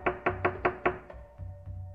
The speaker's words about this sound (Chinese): 大野狼一听，立刻吞了一包润喉药，再去敲小羊家的门。